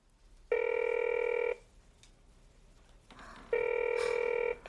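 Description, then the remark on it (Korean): A telephone rings twice, each ring a steady, buzzing electronic tone about a second long, separated by a pause of quiet hiss, with nobody picking up. “아, 왜 전화를 안 받아?”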